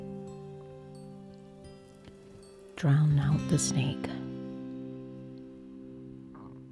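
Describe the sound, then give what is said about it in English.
Quiet, steady river water murmurs in the background throughout, with a faint tonal hum over it, while a person speaks briefly and more loudly in the middle. “and listen to the sound of the river murmuring quietly to itself.”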